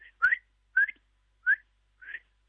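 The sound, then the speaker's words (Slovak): A person imitates the alarm whistle that Tatra marmots use to communicate, with four short, sharp, high whistles, evenly spaced about half a second apart, fairly loud, with no talking. “Takže aj takto sa dneska lúčim s vami aj s poslucháčmi takým pískaním, ktoré svište vydávajú a takto sa dorozumievajú.”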